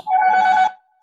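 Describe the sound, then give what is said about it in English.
A home doorbell rings once with a loud, steady electronic tone of medium pitch, lasting just over half a second before cutting off, with no voices. “Somewhat, sorry, that's my doorbell.”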